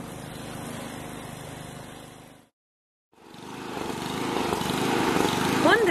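A lawn mower drones steadily with a rough, buzzing engine, cuts out for a short moment of silence, then starts up again somewhat louder. A few quick high chirps appear near the end.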